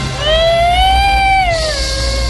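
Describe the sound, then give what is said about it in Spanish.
A mariachi tunes a violin: a shrill, wavering note slides slowly upward, holds, then drops, screeching like a yowling cat. It is one loud, drawn-out tone over a low background rumble, with no talking. “un mariachi afinaba su violín.”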